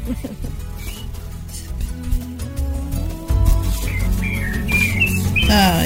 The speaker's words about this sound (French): On entend les oiseaux Tout à fait. C'est dehors La campagne, je suis dehors, voilà. Oui. J'adore les oiseaux.